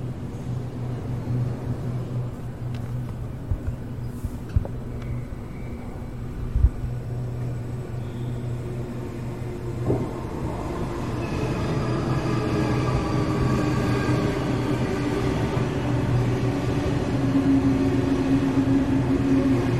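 A commuter train heading into Sydney city rumbles steadily with a low droning hum, growing louder and fuller midway as it speeds up, with faint clicks and a rising whine of motors; no voices.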